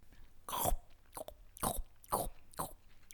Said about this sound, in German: Es knistert. Blättchen hat eins von Arbors herabgefallenen Blättern angeknabbert